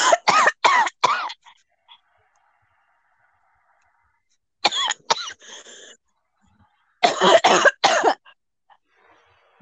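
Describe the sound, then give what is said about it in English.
Three bursts of harsh, repeated coughing, each a quick run of three or four hacks, with some throat clearing between them and quiet pauses in between. “would you put yourself on mute? If you're gonna get sick.”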